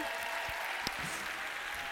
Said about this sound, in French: Donc bah, on applaudit cette décision.